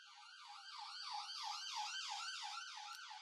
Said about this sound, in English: the ambulance, of course, is here. Because we couldn't finish without the ambulance.